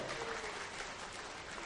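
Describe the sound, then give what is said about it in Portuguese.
Many hands clap with all five fingers in a dense, steady patter that imitates a heavy downpour in a storm, a continuous rushing wash of claps with no single beat standing out. “Chuva pesada, temporal, aguaceiro.”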